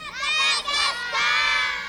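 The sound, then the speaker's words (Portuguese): A group of children shout the name of a cartoon together, loud, in two sustained bursts of high, excited voices with a brief dip between them. “Fala bem alto pra mim, como é que chama o desenho?”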